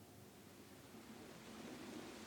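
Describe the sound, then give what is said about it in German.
Steady, dense rain hisses evenly with a soft low rumble underneath, growing slightly louder toward the end; no voices are present. “Regen, wie ich den vermisst habe.”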